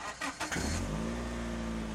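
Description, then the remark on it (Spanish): A car engine cranks with a few quick churning bursts, catches, and settles into a steady, loud rumbling idle with a slight rev, with no one talking. “Brum, brum. Hay que arrancar motores con el automóvil del razonamiento del ESTP para que lo repasemos juntos.”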